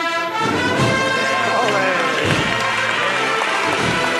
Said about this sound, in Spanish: Han abierto un poquito más el compás, por eso ha roto la ovación. Porque el nazareno lleva una túnica lisa morada. Y con ese movimiento de cintura, pues la túnica ha bailado sobre el paso entre las piernas del nazareno.